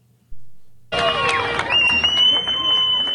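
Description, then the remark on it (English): After a near-silent first second, a crowd of residents in Rostov-on-Don, Russia, abruptly bursts into loud, dense cheering and applause as the departing leader of a mercenary group bids them goodbye, with shouts and a high sustained tone riding over the continuous roar. “To a chorus of cheers and rounds of applause, the leader of the Wagner mercenary group Yevgeny Prigozhin bids the residents of Rostov-on-Don goodbye”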